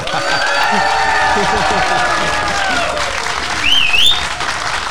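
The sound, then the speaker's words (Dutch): A packed theater audience at Theater De Liefde in Haarlem, an old church building, applauds steadily for a live show, dense clapping filling all five seconds at an even loudness, with a short rising whistle cutting through near the end and murmured crowd voices mixed in. “Ze waren gebriefd hè, over dit ja, applaus.”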